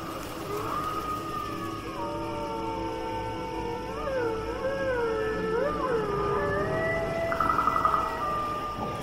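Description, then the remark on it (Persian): Several wolves howl together in long, overlapping wavering calls that rise and fall, sustained throughout, over a steady rushing wind. “صدای زوزه گرگ از پشت سر روبرو هوهوی باد”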